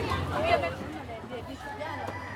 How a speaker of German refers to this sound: Ja, es ist hier wirklich ein sehr, sehr buntes und wildes äh, Markttreiben. Also in unseren Augen sehr anarchisch.